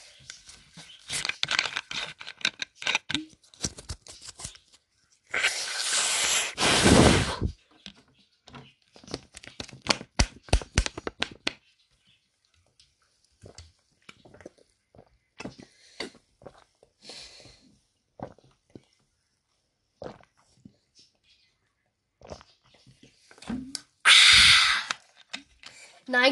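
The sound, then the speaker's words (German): Sipping and drinking Lidl water in quick, clicky bursts, with crinkling and wet mouth sounds, broken by two loud, breathy exhale-like rushes of noise. No one speaks. “Und jetzt, Leute, ist Zeit für einen Schluck Wasser von Lidl. Ich mache jetzt kurz ASMR, Leute, wartet.”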